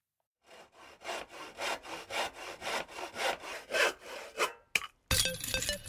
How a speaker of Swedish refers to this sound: Vi hann bara introducera Disc Dior så kom stora sågen fram. Så var det en sågning då.